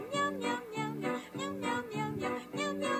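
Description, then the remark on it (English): A catchy Meow Mix cat food commercial jingle built from sung meowing, a melody of repeated meow notes in about five quick phrases over music, loud and steady with no talking. “Meow mix.”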